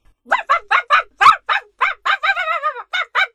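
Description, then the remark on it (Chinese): A dog named Rover barks at a truck driver, over and over in a quick, steady string of about a dozen sharp, high yappy barks, with one longer wavering yelp partway through. No one speaks. “罗弗一个劲儿的叫：“ 好吧，好吧，你可以上来。”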